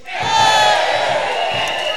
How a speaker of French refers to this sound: Maintenant, quand on vient à l'église, on pousse des cris de joie.